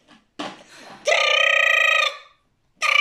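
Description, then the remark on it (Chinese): A telephone rings with a bright, warbling trill lasting about a second, then falls silent before a second ring starts. A few short, muffled sounds come just before the first ring. “但这是电话响啊。”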